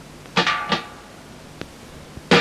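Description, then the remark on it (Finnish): Heavy, booming thuds strike in an irregular pattern, two close together, then a gap with a couple of sharp knocks before a final loud blow, like doors being kicked. “Kuulostaa vaan siitä, niin kuin he potkisivat ovia.”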